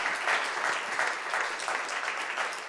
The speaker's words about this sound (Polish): Un aplauso al Señor. Oklaski dla Pana.